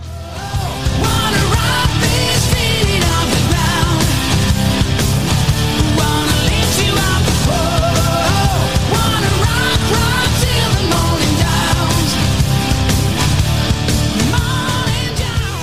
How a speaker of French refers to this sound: Mais en attendant, bien entendu, comme d'habitude, nous passons avec notre jingle.